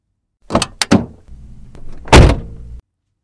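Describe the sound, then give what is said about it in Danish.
The door of a white Honda Integra Type R unlatches with a couple of sharp clicks as it is opened, swings with a low rumbling creak, then lands with a heavy thud. No one speaks. “Der er tale om øjeblikkeligt flashback og déjà vu, da jeg åbner den hvide Honda-dør.”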